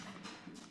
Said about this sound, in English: Sorry, that's my dog going down downstairs.